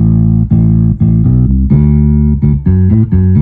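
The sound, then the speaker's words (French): A keyboard bass line, recorded on track 2, plays back on its own with track 1 muted: a run of loud, sustained low synth notes, each held about half a second before shifting pitch, with no voices or other instruments. “Donc, pour que la basse soit entendue seule, je dois muter la piste 1.”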